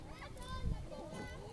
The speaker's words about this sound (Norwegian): Mens det ringer, så kan vi jo informere om at den lyden dere hører i bakgrunnen Vi sitter på en, eh, en taverne akkurat nå på ved en strand.